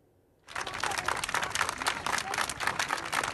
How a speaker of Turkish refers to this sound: Alkışlar bu kez sağlık çalışanlarından Sağlık Bakanlığı'na sağlıkçılar Kasım ayına ait ek ödemelerin hala yapılmamasını